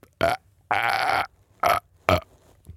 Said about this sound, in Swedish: Bra rap.